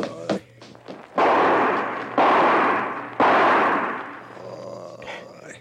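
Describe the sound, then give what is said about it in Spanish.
Three loud gunshots fired inside a building ring out about a second apart, each a sharp blast trailing into a long rumbling decay, after a few fainter thumps and clicks. “Fueron varios disparos y fue aquí adentro.”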